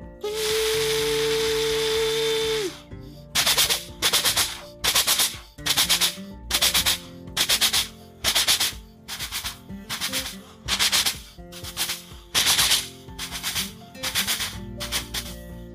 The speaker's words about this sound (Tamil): மிகவும் வேகமாக செல்ல ஆரம்பிச்சிருச்சு இடையிடையே பாலங்கள் மீது ரயில் போகும்போது சத்தம் ரொம்ப வித்தியாசமாகவே இருந்தது